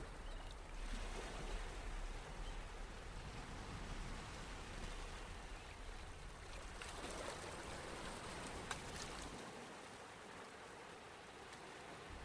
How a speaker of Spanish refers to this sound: Observa. Observa este movimiento que tienen las olas del mar. Preciso, perfecto, fuerte, único, especial, como tú.